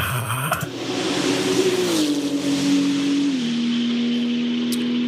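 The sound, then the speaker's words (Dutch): A Porsche GT2 RS Clubsport race car engine roars, one of 200 built, weighing just under 1400 kg with 1200 km on the odometer; its steady high-revving drone shifts pitch slightly as it holds and eases, loud and continuous with no talking. “Het is een van de 200 GT2 RS Club Sports die gebouwd mhm.”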